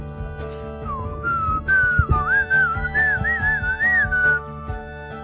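A person whistles a short, wavering melody for a few seconds, the pitch sliding up and down, over faint background hum and a few soft knocks.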